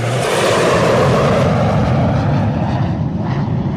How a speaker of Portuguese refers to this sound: Caraca, o jato acabou de dar um rasante aqui no prédio. Não sei como é que não bateu.